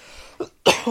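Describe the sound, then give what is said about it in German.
A brief soft throat sound, then a loud, harsh cough bursting out with a raspy second push as it trails off. No one speaks. “Gesundheit.”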